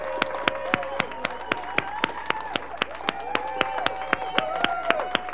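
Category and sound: crowd, audience applauding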